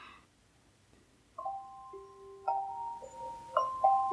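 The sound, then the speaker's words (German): A bright, electronic phone ringtone of sustained chime-like tones, several notes entering one after another and overlapping like a game-show cue, played alone at moderate volume through a small speaker. “Das ist mein Klingelton. Das klingt ja wirklich wie in so einer Talkshow, äh, hier, so einer Quizshow.”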